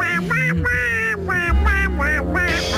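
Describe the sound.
A voice does a nasal, raspy duck-quack impression, a quick run of about half a dozen honking quacks in a bouncy rhythm, loud.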